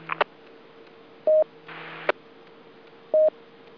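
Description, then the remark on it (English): Two short DTMF touch-tone beeps, evenly spaced, sent from the tone encoder of an ICOM IC2400 Alpha radio over a radio channel, with sharp key-up clicks and a faint hiss of static between them. No one speaks. “have a solution for a tone encoder failure.”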